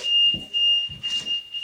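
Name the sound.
smoke detector alarm beeping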